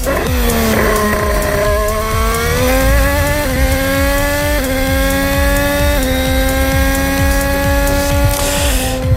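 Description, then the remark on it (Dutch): A loud, high-pitched Formula 1 race car engine at Zandvoort roars continuously, its pitch climbing in repeated steps as it shifts through gears, with no voices over it. “Het is misschien niet zo mooi geluid als die ouderwetse V10, V12-motoren.”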